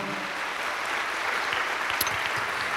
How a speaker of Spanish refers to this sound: Dele un aplauso a Cristo, amado hermano, a su nombre, gloria.